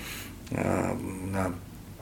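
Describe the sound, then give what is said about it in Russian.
A deep, rough throat-singing growl in the kargyraa style of Turkic peoples, voiced by a person imitating a camel's bellow; one sustained rumbling phrase about a second long, fairly loud, with no talking. “Э, стиль э, э, каргра, допустим, а, а, он напоминает карканье ворона или рев верблюдицы, да, которая защищает своего вот он, о, рычащий звук, он”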